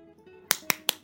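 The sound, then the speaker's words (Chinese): Four crisp, sharp claps land in a quick, even rhythm after a brief quiet moment, each one bright and snappy with no voices alongside: in a children's story, the animals applaud the chick Qiuqiu for finishing the Christmas tree decorations. “大家都在为小鸡球球鼓掌呢。”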